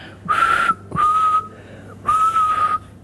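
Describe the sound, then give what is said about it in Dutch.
A person whistles three steady, breathy notes with short pauses between them, moderately loud, with no talking. “Ik heb niet zo'n mooie fluit.”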